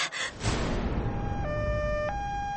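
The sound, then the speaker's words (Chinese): An ambulance siren wails in a steady two-tone pattern, holding a lower note, jumping briefly to a higher one, then dropping back, loud over a constant rumbling road noise, as the ambulance speeds through Beijing late at night. “北京的深夜，救护车一路疾驶”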